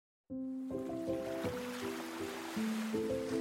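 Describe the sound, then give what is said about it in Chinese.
A steady wash of ocean waves hisses beneath soft, sustained musical notes that step up and down in pitch, starting abruptly and continuing evenly with no talking. “从前，从前，在深蓝色的大海里。”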